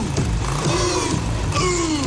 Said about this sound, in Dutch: Ja, en, en eh, het grappige is dat die motorgeluiden die je hoort... Dat is dus geen BSA.